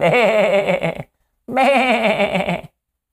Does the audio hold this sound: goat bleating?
yes